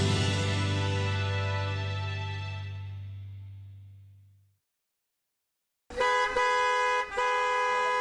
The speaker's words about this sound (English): What a busy traffic on this Friday evening! I am almost stuck in this traffic for the last 40 minutes.